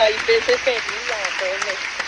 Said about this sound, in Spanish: aplausos de allá afuera.